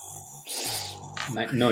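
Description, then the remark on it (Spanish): A voice imitates the rushing water of a river or waterfall heard while running toward it, a breathy, hissing shush lasting under a second, followed by the start of speech. “Es que si cuando uno está corriendo, no sé, en los cerros orientales, o donde sea, y uno va a pasar por un río, una cascada, faltando 10 minutos ya se comienza a escuchar el”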